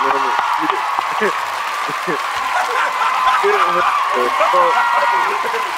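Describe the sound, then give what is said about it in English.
Steady hand clapping, like scattered applause, runs through the whole stretch as a dense crackling wash while people talk and chuckle over it. “give me some claps for that.”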